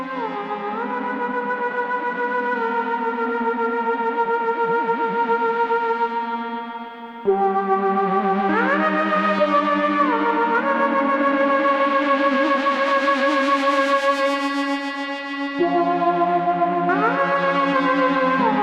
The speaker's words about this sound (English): the reverb that you'll hear, which is the uh, Surfy Bear on its brightest setting. And springs can sound really cool when they're being hit hard and it kind of gets a little chaotic, which is what you're hearing in this.